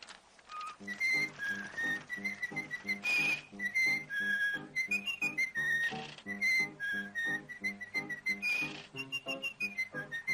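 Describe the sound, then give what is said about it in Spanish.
The characteristic whistle of a cartoon mouse character: a bright, cheerful whistled melody plays clearly in the foreground, hopping through short notes with a bouncy rhythm, backed by light percussive accompaniment and no speech. “Pues sí, amigos, es el silbido característico del ratoncito que con sus aventuras acompañó la infancia de más de uno de nosotros.”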